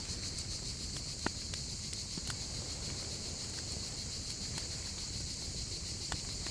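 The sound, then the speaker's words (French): Cicadas drone in a steady, high-pitched buzz that never lets up, softly filling the background, with a few faint scattered clicks and taps underneath. “Alors que les cigales s'assoupissent, la tièdeur ambiante continue de vous envelopper.”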